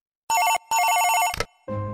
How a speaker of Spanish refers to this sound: Fue entonces cuando su teléfono comenzó a sonar.